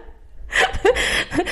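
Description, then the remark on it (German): Air rushing as a man inflates balloons for a children's birthday party, a breathy hiss that starts after a brief quiet moment and runs for about a second, with short squeaky whistling tones sliding through it. No one speaks. “mein Mann lässt gerade Luftballons auf für unseren Kindergeburtstag morgen.”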